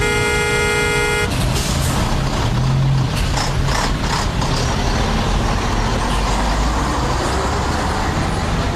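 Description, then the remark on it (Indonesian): A car horn blares for about a second in a traffic jam, then dense traffic noise takes over: engines rumbling and hissing road noise, with scattered bumps and clanks, loud throughout. “Ya Allah, macet banget nih.”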